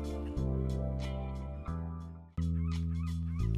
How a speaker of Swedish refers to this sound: Så där, ja, medan eh, måsarna skränar i vignetten så säger jag att det är den 20 februari, måndag alltjämt då